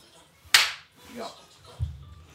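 One sharp, bright hand clap rings out, followed by a faint murmur, a soft low thump and a small click near the end.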